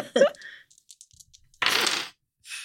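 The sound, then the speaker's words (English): Dice rattle with a few light clicks, then tumble in a short clattering burst and settle with a brief final rattle, rolled for a crowd-surfing attempt in a game. A short vocal sound comes just before. “Roll 46 to mosh to, to crowd surf.”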